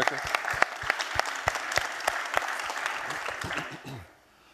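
A burst of audience applause, dense clapping at a steady rhythm for about four seconds, then fading out quickly. Some murmuring voices mix in with the claps.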